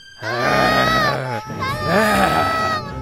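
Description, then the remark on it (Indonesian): Several voices imitate young goats screaming in panic as they start running about, loud overlapping wavering bleats and cries that run almost continuously for about three seconds, frantic. “Anak kambing tidak tahu harus berbuat apa. Mereka mulai berlarian, berteriak.”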